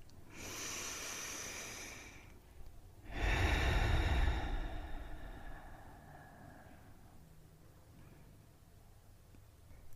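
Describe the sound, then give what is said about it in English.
A slow, deep breath drawn in, then a fuller, louder exhale that trails off gradually. The breathing is breathy, with no talking. “let's take a deep breath in and a deep breath out.”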